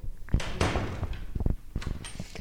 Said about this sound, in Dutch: De deur moet waarschijnlijk even op slot en het licht moet uit. En ik doe het licht uit. Handmatig, hè? Handmatig. Ja, ja, ja. Met een sleutel.